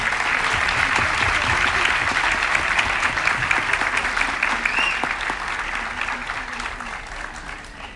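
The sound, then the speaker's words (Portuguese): Sustained audience applause welcoming a guest, a dense crackle of many hands clapping at once, steady and loud before gradually tapering off toward the end. “primeiro a Cláudia com uma salva de palmas, por favor”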